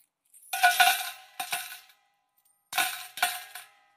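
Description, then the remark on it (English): Coins given as offerings clatter down into a metal offering receptacle in the court of the Gentiles in two bursts, each a quick jingling cascade with bright metallic ringing, separated by a short silence; fairly loud, no voices. “And they would just keep dropping and dropping.”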